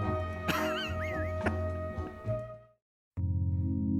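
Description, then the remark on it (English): A dog lets out a couple of sharp yips with high, wavering whimpers in between, then falls quiet before a steady humming tone starts. “That's a good boy.”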